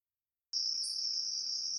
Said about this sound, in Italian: Ok. Scelgo io. Riproduco il canto dei grilli.